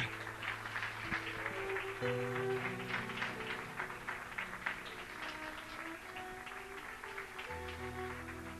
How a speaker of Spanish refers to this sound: ¿Quién vive? ¿Quién salva? ¿Quién liberta? Demos un aplauso a nuestro Señor.